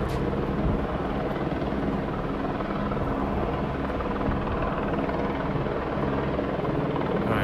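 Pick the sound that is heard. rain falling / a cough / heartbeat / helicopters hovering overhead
helicopters hovering overhead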